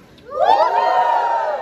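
An audience erupts into loud shouting and cheering, rising quickly and holding as a sustained, full roar of many voices.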